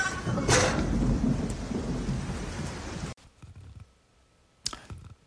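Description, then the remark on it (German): Steady, dense rain hisses loudly for about three seconds, then cuts to a quieter patch with scattered drips and a sharp splash or rumble near the end. No one speaks. “Ach, übrigens, es regnet.”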